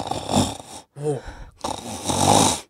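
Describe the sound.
A voice mimics the snoring of someone who fell asleep about 15 minutes into watching a comedy live show with friends: a harsh, noisy inhaled snore, a short pause with a brief voiced rumble, then another long raspy snore, fairly loud.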